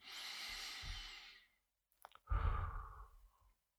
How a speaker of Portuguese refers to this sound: O agora é exatamente isto. É eu recordar-me desta simples cadência de inspiração e expiração que existe em mim.